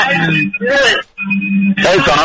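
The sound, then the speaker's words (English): A caller's radio plays in the background over a phone line, carrying muffled voices and steady tonal hums, nearly continuous apart from a short gap midway. “Can you turn down your, your can you turn your radio down, please?”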